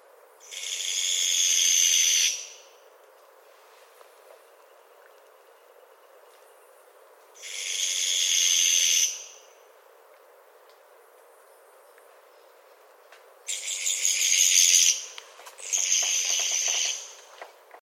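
An owl gives its other, second call: a series of harsh, raspy screeches, each lasting about two seconds with long pauses between, and the last two come quickly back to back. No one speaks.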